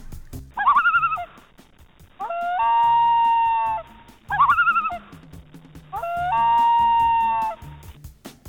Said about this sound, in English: That is the sound of a loon, an aquatic bird found in North America, Northern Europe, and Northern Asia.